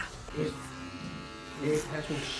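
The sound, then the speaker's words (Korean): A steady electric hair clipper buzzes continuously, its droning hum swelling slightly twice, while indistinct voices murmur underneath. “지난 연말 선물로 가장 인기 있는 선물 가운데 하나가 전기 모바일 정리기였다고 합니다.”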